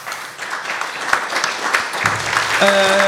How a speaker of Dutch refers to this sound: Applaus, dames en heren.